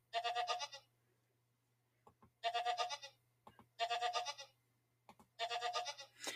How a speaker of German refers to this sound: Ja, das war die Ziege.